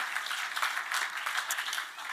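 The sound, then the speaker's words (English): Steady audience applause for a guest speaker, the CEO of an education group, many hands clapping in a dense, even patter that holds at a moderate level throughout, with no voices over it. “So I think he deserves a, a round of applause.”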